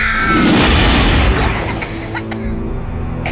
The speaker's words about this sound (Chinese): 小宝重重地摔在地上，这种冲击力让小宝。咳嗽不止，后背的疼痛感传遍全身。